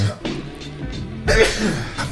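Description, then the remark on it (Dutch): A sudden, loud, breathy burst from a person, most likely a sneeze, lasting under a second, with a quieter stretch of murmured voice sounds leading into it. “Gezondheid.”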